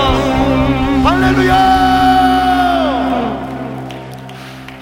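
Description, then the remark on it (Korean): An audience claps and cheers loudly, giving applause of glory and victory to the Lord, over sustained, swelling tones, with sharp claps dense at first, then the noise gradually thinning and fading near the end. “주님께 영광과 승리의 박수 올려드립시다”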